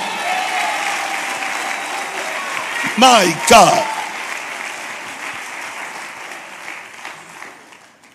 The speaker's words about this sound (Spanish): Si lo creen un aplauso fuerte al Señor.